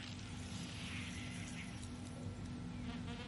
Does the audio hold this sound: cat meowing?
no